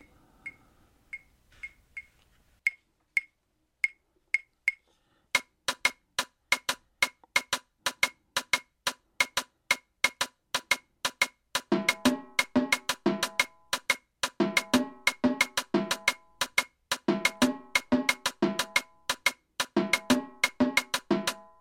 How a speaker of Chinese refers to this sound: 那我做了一个节奏，我们听听看啊，就是就从前面这样过来，从 clave 到 palitos 到 congas，好，我们听听看。